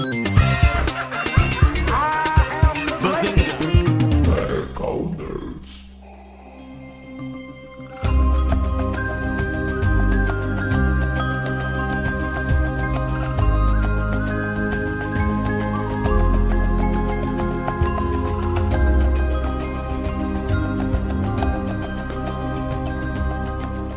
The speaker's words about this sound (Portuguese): roda a vinheta.